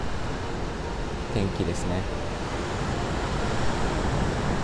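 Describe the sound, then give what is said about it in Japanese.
Rough waves roar steadily on the beach at Hayama, Japan, a dense, constant wash of surf noise filling the background while a woman speaks briefly over it. The weather is very warm and calm. “今日はですねあのちょっと波が荒いんですがものすごく暖かくて穏やかな”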